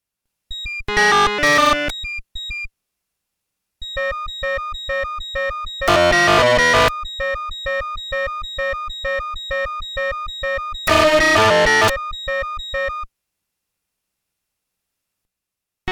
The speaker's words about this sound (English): Then we present the full four-tone cycle. You can now hear a low CD string. Can you pick up the high A B sequence better when D is present?